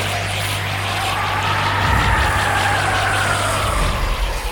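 A video game spinning sound effect as the characters spin in midair on the way into the special stages: a steady, fairly loud whirring drone with a low hum underneath, a rhythmic whooshing pulse repeating throughout, and a tone that slowly rises and falls. No one speaks.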